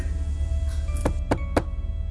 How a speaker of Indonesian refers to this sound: kuparkirkan motorku dan langsung saja ku ketuk pintu rumah Ebi